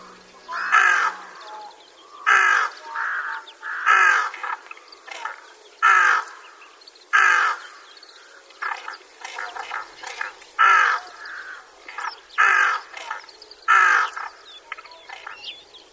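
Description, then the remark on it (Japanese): A flock of rooks caws repeatedly in a winter rice field in Itakura town, between the Tone and Watarase rivers, Japan: harsh calls coming in steady bursts about every second or so, several birds overlapping, with no talking. “この声はミヤマガラスです全長およそ47センチ細めのくちばしは根元が白っぽいグレーに見えてこれがミヤマガラスの最も分かりやすい特徴です”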